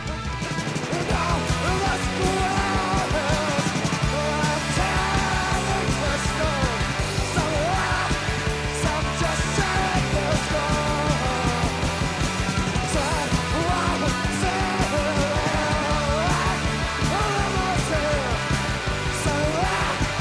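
Loud, fast punk rock cover song with dense distorted guitars, pounding drums and a hoarse, shouted lead vocal, playing continuously at full intensity throughout.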